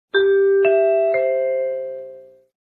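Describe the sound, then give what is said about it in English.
Three mellow chime notes, the NBC chimes, struck in even succession, each ringing on and blending into the next before fading out together, with no voices present. “I think it's safe to say that the creators may have taken more than a little inspiration from the NBC chimes.”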